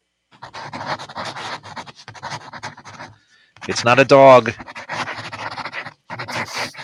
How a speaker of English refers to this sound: Scribble on paper. Yes, you're right. It's pencil scribbling. You are correct.